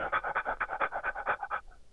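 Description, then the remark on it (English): A person imitates a dog's panting to demonstrate what they call pant breathing, a quick, steady run of about a dozen short, breathy huffs, fairly loud, trailing off at the end. “So I had to figure out the system of what I call pant breathing. It's like when you see a dog go.”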